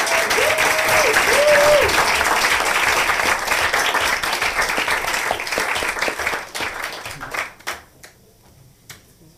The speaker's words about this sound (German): Vielleicht geben wir denen einen Applaus.